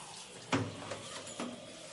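Water splashes and sloshes in a few brief, soft bursts as a shower mitt is wetted under running water, over a steady low hiss with no voices.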